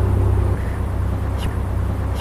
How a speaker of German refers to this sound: Und ich bin der Hügel am Ostpark. Ich wölbe mich aus der Erde raus und ich höre das Rauschen von den Autos, von Baustellen und bei mir ist es zugleich still und auch laut.